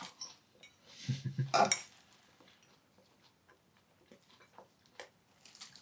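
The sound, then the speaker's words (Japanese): Cutlery and dishes clink and scrape as a salad with sauce is served, with a louder cluster of clatter early on, then scattered lighter taps and clicks against plates. “ごめんね先によそっちゃったよ”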